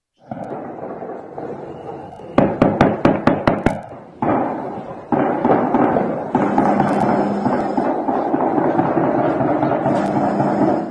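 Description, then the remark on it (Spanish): A rapid burst of sharp gunshots from a shootout cracks out in quick succession, followed by sustained loud noise like a roaring engine or wind, with a few more scattered bangs. “un audio que tenemos por ahí de nuestros amigos que nos llegó, que precisamente la balacera”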